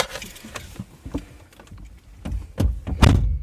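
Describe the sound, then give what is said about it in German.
A door is pushed shut, with scraping and handling noises building to two heavy thuds near the end. No one speaks. “Wir machen jetzt mal die Tür zu.”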